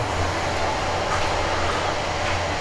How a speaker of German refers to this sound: Jetzt fängt das Wasser gleich an zu kochen und dann genau, das Geräusch kennt ihr. Genau, jetzt geht er aus, klar. Muss er ja auch.